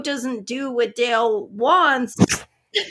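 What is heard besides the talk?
sneeze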